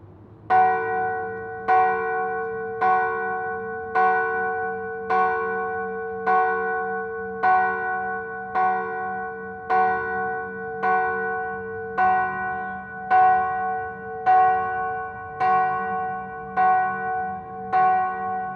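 Church bells of Huacaypata ring in a steady, even rhythm, about sixteen resonant strokes with overlapping ringing tones, moderately loud and clear with no voices present.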